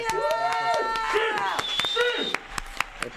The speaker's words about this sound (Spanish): Disco de aplausos, por Exacto.